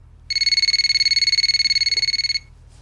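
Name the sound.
telephone ringing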